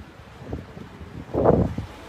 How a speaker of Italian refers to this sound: l'audio ok ragazzi perché c'è un po' di vento e eh, sono con le, con le AirPods